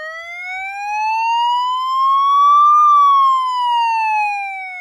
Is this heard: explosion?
no